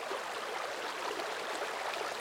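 Rapids rushing in a steady, unbroken hiss of white water, constant and moderately loud throughout, with no voices or other sounds.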